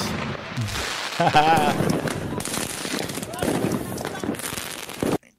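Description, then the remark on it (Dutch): Consumer fireworks of a kind legal in the Netherlands crackle and pop in a dense, continuous barrage, loud, with rapid overlapping bursts; a person laughs over the din before it cuts off abruptly. “You can buy this at the end of the year and fire it in the streets.”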